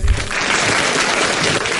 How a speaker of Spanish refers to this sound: ya quiero que empiecen a sonar los aplausos porque lo vamos a recibir, los vamos a recibir en realidad, porque no son uno, son dos y son amigos.